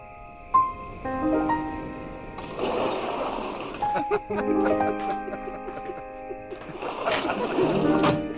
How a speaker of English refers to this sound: And so I have, you know, the sound of waves in the background, I have to have the sound of crickets.